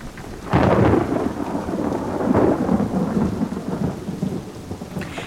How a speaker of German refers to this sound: Doch je größer die Regentropfen, je stärker der Wind, je dunkler die Wolkenberge und je lauter der nahende Donner wurden, desto aufgeregter und auch ängstlicher wurden sie.